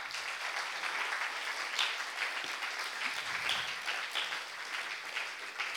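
Sustained applause from an audience, a dense steady patter of many hands clapping throughout, moderately loud, with no voices standing out.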